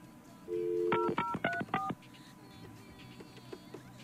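A short steady phone tone of an outgoing call gives way to a quick run of about five clear touch-tone dialing beeps, then only faint background hiss remains.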